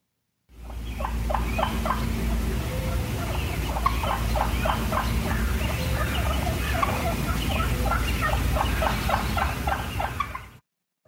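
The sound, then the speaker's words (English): A wild turkey gives a cluck call, a sound of contentment, clucking repeatedly in short, sharp notes, a steady series of soft calls over a low outdoor rumble, with no talking. “So, that's what they call a cluck, and that's just a sound of contentment.”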